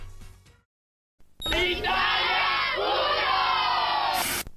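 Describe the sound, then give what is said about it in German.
After a short lull, a crowd of voices shouting "Italia Uno", the call from the Italian TV channel's 2000s programme announcements, erupts into a loud, sustained group shout, many people yelling together in a rising chant for about three seconds before it cuts off abruptly. “Menschen, die Italia Uno schreien und dazu irgendwelche Verrenkungen machen, das ist eine der ersten Memes der italienischen Online-Kultur in den 2000er Jahren.”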